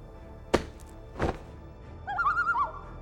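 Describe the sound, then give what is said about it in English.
Two sharp rustling thumps as a net is pulled off a crane-shaped bird, followed by a short, wavering bird call, moderately loud, with no talking. “It takes the shape of a crane, but its head, it's a dark mirror.”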